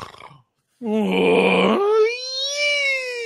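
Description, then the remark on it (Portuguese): A voice imitates a man's snoring: a brief murmur, a pause, then a harsh rasping inhale that slides into a high, squeaky whistling wheeze, loud. “Dava aquela chiada no final.”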